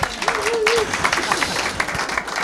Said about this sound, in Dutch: Mag ik even een applaus voor